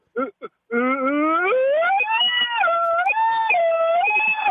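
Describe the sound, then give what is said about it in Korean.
A person vocally imitates an ambulance siren: after two short clipped syllables, one loud, sustained wailing tone rises steadily, then swings between high and lower pitches for several seconds. “앰뷸런스 소리 하나만 터지면 됩니다.”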